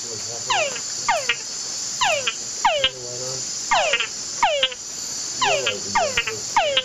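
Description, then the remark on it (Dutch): A male frog's mating call repeats in short bursts of descending chirps and clicks, roughly every second, over a steady high insect drone in the background. No one speaks. “En dus het vrouwtje moet het aantal klikjes tellen.”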